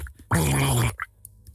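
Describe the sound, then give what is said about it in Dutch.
A fart in bath water imitated by blowing into a small bowl of water: one loud, buzzing, bubbly blurt lasting about half a second, then quiet with faint background noise. “Want de scheet klinkt zo.”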